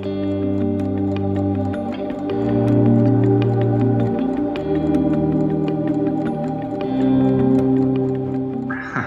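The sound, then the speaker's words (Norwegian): A clock ticks steadily and evenly at the opening of a song, its sharp clicks clear above sustained, droning musical tones whose low notes shift slowly underneath. No one speaks. “den starter med en sånn tikking fra en klokke.”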